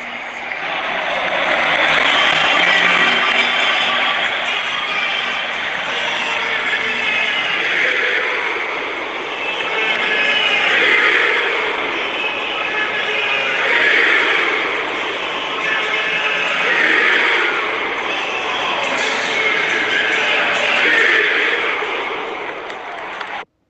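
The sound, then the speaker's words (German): A huge stadium crowd roars in celebration of Milan's 1-0 goal against Salzburg in a Champions League match on Wednesday, 2 November, scored by Olivier Giroud: a dense, sustained wall of cheering and chanting that swells in waves and stays loud for the whole stretch. “Ähm, das, was ihr gerade gehört habt, war der Torjubel beim 1 zu 0 äh, von Milan gegen Salzburg am vergangenen Mittwoch, den 2.”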